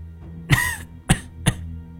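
coughing

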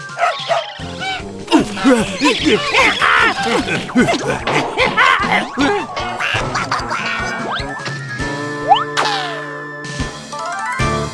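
duck quacking

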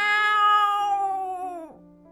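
cat meowing

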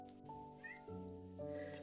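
cat meowing

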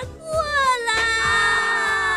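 baby crying

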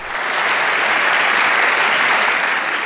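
applause

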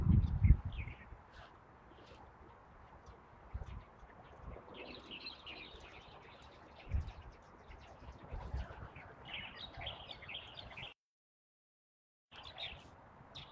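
light-vented bulbul calls

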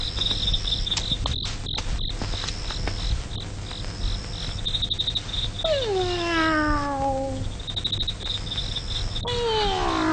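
cat meowing

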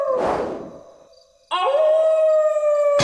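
dog howling

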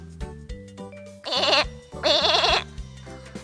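lamb bleating

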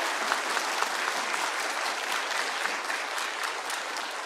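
audience applause

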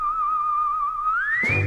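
person whistling a tune

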